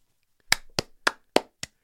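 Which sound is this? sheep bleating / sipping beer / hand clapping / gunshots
hand clapping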